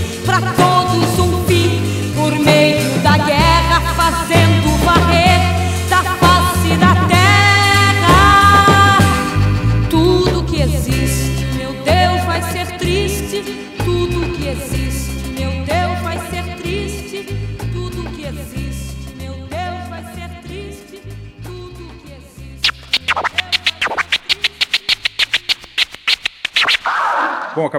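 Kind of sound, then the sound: song playing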